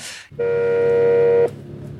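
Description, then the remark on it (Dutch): The doorbell of the heritage office on Waterstraat, in a building that also houses the Design Museum and the Noord-Brabants Museum's Provincial Depot, rings once. It gives a steady, loud electronic tone lasting about a second before cutting off abruptly, with a brief hiss just before it. “Maar dit is de bel van het erfgoed.”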